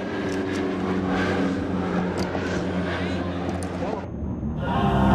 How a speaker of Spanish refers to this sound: Ustedes pueden observar en este momento cuando uno de los aviones Bronco intenta lanzar cohetes al... Exactamente en este momento está cayendo uno de los cohetes cerca del... Palacio